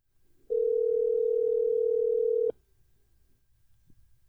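A steady telephone dial tone while placing a call holds a single unbroken pitch for about two seconds, loud and clear, then cuts off abruptly, leaving faint background hiss with no talking.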